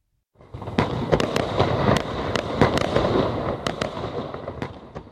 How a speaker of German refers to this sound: Ohne Feuerwerk kein Jahreswechsel. Doch mit den Raketen und Böllern werden jede Menge giftige Substanzen in die Luft geschleudert.